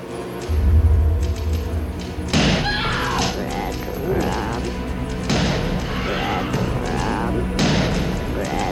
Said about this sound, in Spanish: Esa es clásica. Jack Nicholson con un hacha eh, rompiéndole la puerta. Supuestamente esa era su esposa, ¿no?